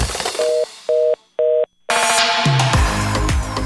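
telephone busy tone

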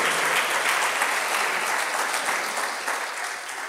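audience applauding loudly

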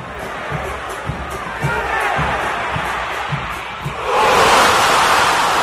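stadium crowd roaring

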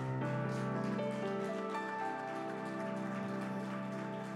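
audience applauding

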